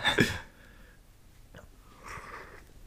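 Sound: sipping hot tea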